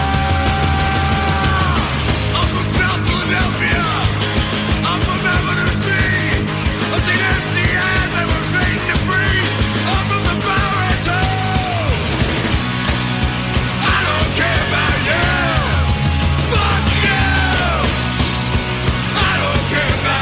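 A loud, dense rock song plays throughout, with heavy distorted guitars, pounding drums and a raw, shouted lead vocal riding on top of the full-band wall of sound.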